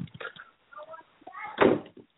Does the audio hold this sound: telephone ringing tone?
no